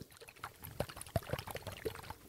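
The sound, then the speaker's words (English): Blue glitter-filled facial massager wands shaped like maracas, jiggled, giving a wet, sloshing swish with irregular soft clicks and knocks over a couple of seconds, and no voices. “This is what they sound like when I uh, jiggle them.”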